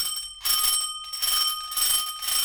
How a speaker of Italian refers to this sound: per poi essere svegliati verso le due di notte dallo squillo insistente del campanello della porta principale.